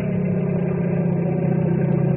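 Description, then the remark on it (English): A helicopter hovering, its engine giving a steady, loud low drone with a dense rumbling hum that holds even throughout, with no voices. “Hover the copter now.”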